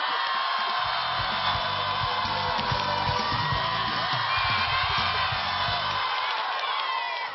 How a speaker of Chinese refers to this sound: 那么现在就希望全场所有的好朋友用您山东人最热情的掌声，欢迎著名的脱口秀主持人金星啊的妹妹